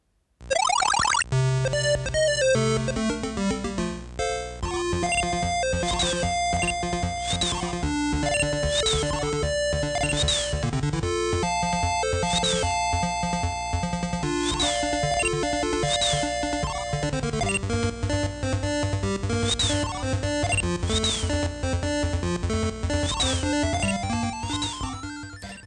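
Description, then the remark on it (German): Arcade machine game sounds over looping background music: bright electronic tones, repeated blips and rising chirps riding on a steady bass line, continuous and fairly loud throughout with no voices. “wir haben ja nur die Arcade-Musik eingespielt am Anfang, spielen wir euch jetzt mal praktisch vom Arcade-Automaten äh, dementsprechend äh, Spielsound und die Begleitmusik ein.”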